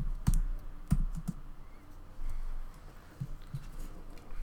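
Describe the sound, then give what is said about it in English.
Quick bursts of typing on a computer keyboard as someone searches Google, a handful of sharp keystroke clicks in irregular clusters, fairly quiet against a low background hum, with no one talking. “Let me Google.”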